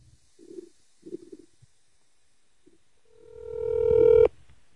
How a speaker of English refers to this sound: I'm calling my wife right now to gloat